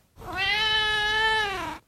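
A single long, drawn-out cat meow, steady and tonal for well over a second before trailing off, heard clearly with nothing else around it.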